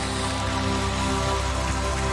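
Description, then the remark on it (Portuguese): A church audience applauding for Jesus during a service: dense, steady clapping from many hands that blurs into a continuous crackling wash, with a faint low tonal hum underneath and no voices. “Você pode aplaudir o nosso Jesus aí?”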